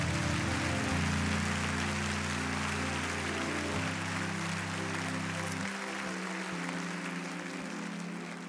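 An audience claps hands to give praise to God during a sermon, a dense, continuous wash for several seconds, steady in loudness, while sustained low organ-like chords shift underneath. No one speaks.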